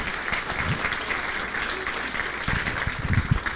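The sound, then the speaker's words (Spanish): An audience applauds with dense, steady clapping from many hands, a continuous crackling wash of sound that holds at an even, fairly loud level for the whole stretch without fading. “Dale ese fuerte aplauso, por favor, Rey de Reyes.”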